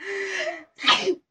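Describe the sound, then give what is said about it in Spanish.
A single loud sneeze: a drawn-out voiced intake, a brief pause, then a sharp, breathy burst that fades quickly. “Salud.”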